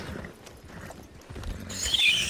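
Close, steady hooves clip-clop, then a loud, high-pitched horse whinny rises over them near the end. No one speaks.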